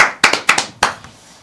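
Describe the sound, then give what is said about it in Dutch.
A brief burst of applause for the winners: five or six sharp, bright hand claps in an uneven rhythm, then a faint last clap as it quickly dies away, with no voices. “Maar eh, hey, nogmaals, applaus.”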